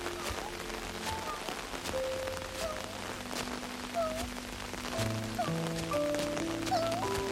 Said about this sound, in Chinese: 淅沥淅沥，雨滴打在雨伞上。